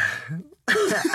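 A soft breathy intake, a brief pause of silence, then a sudden loud, explosive burst like a sneeze or harsh cough that fills the rest of the moment, in a studio booth.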